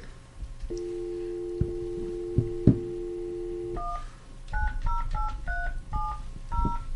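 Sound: telephone number being dialed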